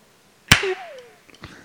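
One sharp, loud slap on the cheek cracks out, followed by a thin fading tone and, a moment later, a much softer second smack.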